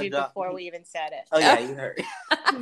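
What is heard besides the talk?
dog sneezing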